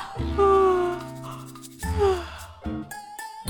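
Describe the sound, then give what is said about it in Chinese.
A voice imitates a sloth's big, drawn-out yawn: a long, loud, voiced breath with a sliding, falling pitch, followed by a second shorter yawning groan and a few brief sighing sounds. “这很简单，他不停的打哈欠，就好像。”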